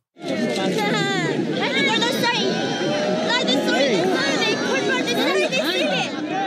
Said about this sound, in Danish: Man kan høre, at stemningen er euforisk. Det er lyden af Pave Frans, der, der hilser på mange fremmødte fans foran øh, Peterskirken.